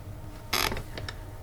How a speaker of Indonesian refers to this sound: ya elah, pakai jatuh lagi nih pulpen.